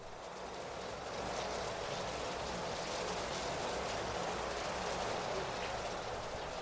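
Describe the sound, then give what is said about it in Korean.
Steady rain drums on a car roof, a dense continuous patter with a low rumble underneath, heard from inside the enclosed cabin. No one speaks. “차 안엔 빗소리만 들릴 뿐 다시 침묵이 고여들었다.”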